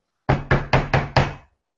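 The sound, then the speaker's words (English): Five loud, heavy bangs on a front door by police, in a quick, slightly uneven rhythm, forceful, each thud ringing briefly before the next, with no voices. “were banging on the front door”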